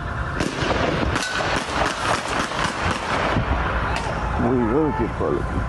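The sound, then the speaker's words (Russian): Gunfire in street footage published on social media, as security forces fire on a suspected attacker on a roadway: several sharp, irregular bangs crack through a loud, constant background roar, with a raised voice shouting toward the end. “На кадрах, опубликованных в социальных сетях, слышна стрельба.”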